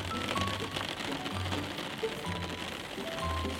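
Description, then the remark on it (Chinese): Raindrops patter in a forest in a dense, steady crackle throughout, with a faint low hum and a few brief tonal notes drifting underneath. “他长途跋涉，走进了森林，收集了噼里啪嗒的雨滴声。”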